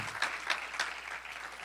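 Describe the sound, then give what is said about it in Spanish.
A crowd claps steadily in applause for Christ, a dense wash of many hands applauding together, sustained with a few louder bursts, no one speaking. “Dele un aplauso a Cristo.”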